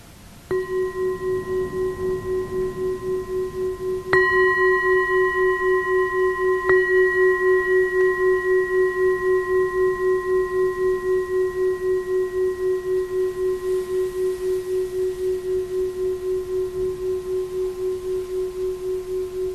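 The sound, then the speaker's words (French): A meditation bell rings alone, struck about three times in succession, each strike adding to a clear, steady tone that hums and slowly fades over a long sustained resonance. “possible qu'on note là, avec le son de la cloche quelque chose qui se relâche dans l'esprit, une tension, quelque chose qui se libère, au moment de bouger peut-être.”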